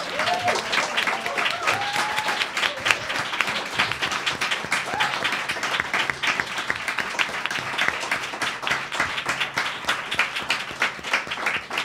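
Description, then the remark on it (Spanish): An audience at Café UF applauds the women guests steadily, a dense, even wash of many hands clapping that holds at a strong level throughout, with a few brief voices cheering or calling out near the start. “Este aplauso es para vosotras.”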